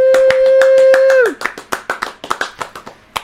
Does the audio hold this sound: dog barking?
no